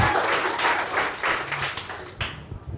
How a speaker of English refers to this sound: Got a round of applause.